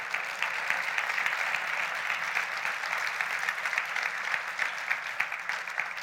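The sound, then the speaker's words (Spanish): A steady round of audience applause, many hands clapping in a dense, crackling wash that holds a fairly even loudness for several seconds with no voices over it. “Hoy en día, sí, yo creo que se merece un aplauso eso.”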